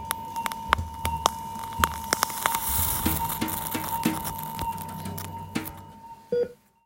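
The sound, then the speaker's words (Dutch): Electrocautery coagulating (sealing) a small blood vessel in an operating room during surgery: a steady high electronic tone hums for several seconds while sharp sizzling crackles and pops burst irregularly over it, then everything cuts off abruptly. “Nou, wat je hoort is het eh, geluid van het coaguleren, oftewel dichtmaken van een eh, bloedvaatje op de operatiekamer.”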